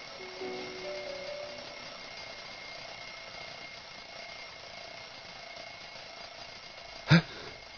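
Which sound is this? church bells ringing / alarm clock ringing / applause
alarm clock ringing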